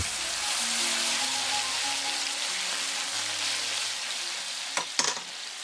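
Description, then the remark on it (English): White wine poured into a hot pan of sauteed garlic and bacon hisses into a steady, bright sizzle that holds for several seconds as the pan is swirled, with a couple of sharp clinks of the pan near the end. No one speaks. “Now, pour in the white wine and swirl the pan.”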